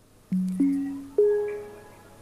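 A Windows 11 startup sound as the computer loads: three soft, rising chime notes struck in quick succession, each ringing out and overlapping into a gentle, fading tone. Clear, with no voices.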